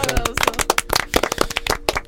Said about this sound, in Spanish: Ah, qué bonito. Ah, un aplauso, un aplauso.